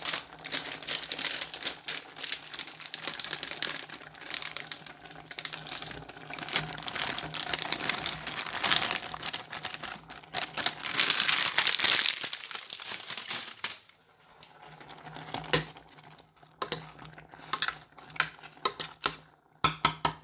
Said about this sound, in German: dann habe ich die Tortellini reingegeben, da hörst du dann die Tüte so ein bisschen knistern und rascheln